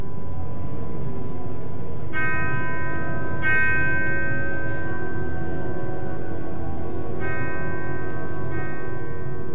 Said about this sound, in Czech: ještě z šeřelého hlediště Národního divadla vyzvání pohřební zvon. Hrana.